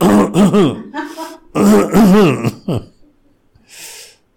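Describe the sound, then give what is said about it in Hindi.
A man's voice mimics a driver coughing from behind, with two bursts of rough, voiced hacking, followed by a brief breathy exhale. The sounds are fairly loud, with no other talking. “पीछे से ड्राइवर खांस रहा था”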